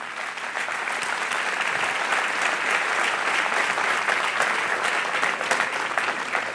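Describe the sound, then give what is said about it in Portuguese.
An audience applauds for the Lord, steadily, a dense wash of many hands clapping that holds at an even, fairly loud level for several seconds without letting up. No one speaks over it. “Se esse aplauso é para o Senhor, é forte, irmão.”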